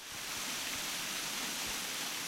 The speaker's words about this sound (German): Hier trifft ein unterirdischer Bach auf die Kreidewand und zersetzt sie.